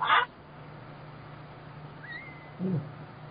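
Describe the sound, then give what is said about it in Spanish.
A short, high-pitched cartoonish yelp of the character Ned Flanders bursts out right at the start, then a quiet stretch with a faint thin whine and a low brief grunt near the end. “Pero la de Virgo, mira, déjame les represento con, un, con un sonido.”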